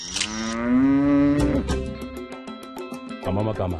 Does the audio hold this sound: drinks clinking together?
no